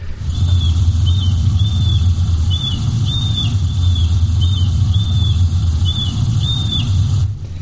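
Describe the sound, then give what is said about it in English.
A series of about ten short, high, slurred flight call notes from birds flying over a survey site, repeating at a fairly steady pace, faint and slightly reverberant as the sound bounces off the trees, above a constant low rumbling drone. “So there, so there's a, there's sort of series of them, and these are probably birds that are in flight flying over our survey site.”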